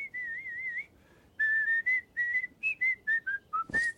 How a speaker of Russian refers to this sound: А когда въедет в лес, станет ему страшновато, как бы не напали разбойники и он, чтобы виду не подать, насвистывает про себя веселую песенку.